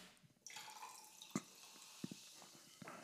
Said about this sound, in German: Schön, wie du einschenkst.